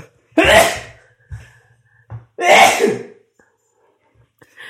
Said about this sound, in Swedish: Jag måste nysa.